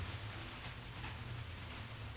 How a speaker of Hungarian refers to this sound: Remélem esik az eső. Azt gondolom, hogy esik. Hú, de jó.